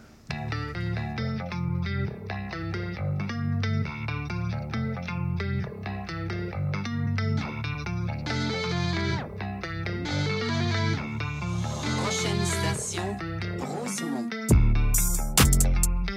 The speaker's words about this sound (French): qui est tirée de son dernier album …, qui est sorti le 25 août dernier. Vous écoutez ça sur les ondes de CBL 105 à la fin du rap.